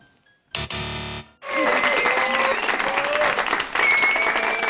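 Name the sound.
applause sound effect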